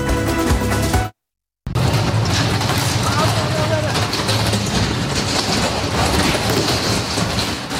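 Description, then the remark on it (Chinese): Scaffolding and sheet metal from a construction site crash to the ground during a windstorm in Japan, a loud, sustained clatter of banging and scraping metal, broken by a brief moment of silence near the start, with indistinct voices mixed in. “巨大的金属碰撞声中，工地的鹰架和一片片铁皮陆续砸向地面，吓坏一旁的目击民众。”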